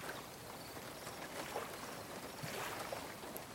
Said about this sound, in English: A gentle droplet from the sky hits your face, and you hear the beginnings of a rainstorm reaching the water.